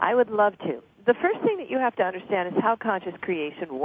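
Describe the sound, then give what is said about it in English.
A man talks over a thin, narrowband headset line, his voice carrying a hollow echo that slightly doubles each phrase as he speaks steadily. “You're echoing. Are you on a cell phone?”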